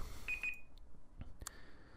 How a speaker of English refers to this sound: And there's a timer. That one's allowed.